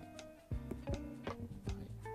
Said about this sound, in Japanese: ちょっと雑音が入るけどポチっていうね雑音が入る